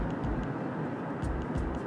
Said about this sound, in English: I gotta see what's going on. There's a a bunch of people slowing down and stopping. Traffic starting to get heavy.